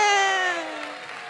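An audience claps and cheers, with one loud, drawn-out whoop riding over the crowd noise, which carries on steadily for about a second and a half.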